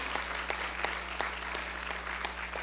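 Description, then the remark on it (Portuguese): An audience applauding the Lord Jesus, a dense steady wash of many hands clapping with a few sharper claps popping out at irregular moments, moderately loud over a constant low hum. “Dá um glória a Deus e aplauda ao Senhor Jesus.”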